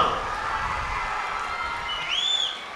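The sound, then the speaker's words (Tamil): A large crowd at a college function applauds and cheers for the college administration in a dense, continuous wash of clapping and shouting, with a brief high whistle-like cry rising near the end before it eases off slightly. “இவ்வளவு பிரம்மாண்டமாக ஏற்பாடு பண்ண இந்த கல்லூரி நிர்வாகத்திற்கு ஒரு பலத்த கைத்தட்டலை முதல்ல நம்ம பரிசாக கொடுத்துடலாமா சத்தமா எல்லாரும் சேர்ந்து இன்னும் சத்தமா”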